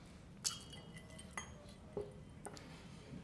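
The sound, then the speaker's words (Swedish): A few small, bright clinks ring out at uneven intervals as small ice cubes drop into a glass for a served drink, over a low background hum with no talking. “Nu har jag inga stora isbitar kvar, annars hade jag gjort det lite fint för det, så det blir små isbitar.”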